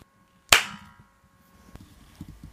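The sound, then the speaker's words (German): After breathing in deeply, a person claps their hands together once as part of a guided exercise: a single sharp, loud clap that rings out and decays quickly, followed by quiet, faint low rustling and soft thumps. “tief einatmest und dann aufeinander klatscht die Hände.”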